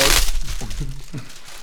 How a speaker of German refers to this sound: Raschelt jetzt ein bisschen